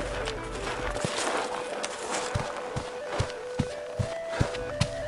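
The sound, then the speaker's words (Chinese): Footsteps and hooves of a small party of people and horses walking along a main road over gravel, in a steady, even rhythm, the crunching steps growing louder over a low constant hum, with no one speaking. “远远的，一小队人马在大路上走过，似乎 谁也没有听到那灵卡中的笑声和歌声，谁也不朝灵卡望上一眼。”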